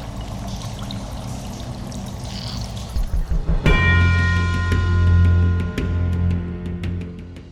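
Rushing, trickling water gives way to sparse, irregular drips over a steady low ringing tone. No one speaks.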